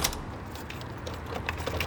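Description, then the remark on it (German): A door being locked with a key: a short run of soft metallic clicks and scrapes, with small ratcheting ticks and faint jingling, low and steady with no voices. “Die Tür wird abgeschlossen.”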